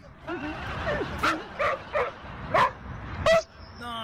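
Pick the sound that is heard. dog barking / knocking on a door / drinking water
dog barking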